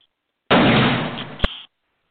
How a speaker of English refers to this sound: Passing into the two front rooms, Ken rounds the corner into a galley kitchen as a gun fires.